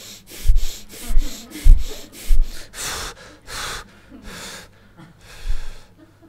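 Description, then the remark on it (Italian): Rapid, forceful breathing as a fast-breathing exercise, quick inhales and exhales in a steady run of about ten breaths, starting fast and loosening into slightly longer, airier breaths, with no talking. “Anche se è un po' ansioso anche per respirare veloce.”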